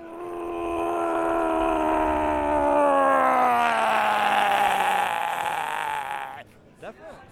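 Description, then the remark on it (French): A person lets out one long, loud, sustained yell lasting about six seconds, its pitch slowly sliding downward before it cuts off, followed by a brief faint vocal sound. “Très, très, très, très beau cri.”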